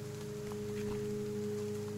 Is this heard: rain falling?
yes